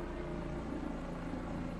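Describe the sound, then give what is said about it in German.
A steady, droning helicopter engine hum with a low rotor-like throb, continuous and moderately loud throughout, as the helicopter flies toward the Hatton Garden jewellery district in London, around 1999. “Um 1999 fliegt ein Helikopter in Richtung des Londoner Juwelendistrikts Hatton Garden.”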